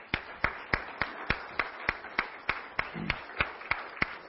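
A church audience claps hands for the Lord at a morning service, in a steady, even rhythm, sharp unified claps about three per second, with a wash of scattered clapping and crowd noise filling the gaps between beats.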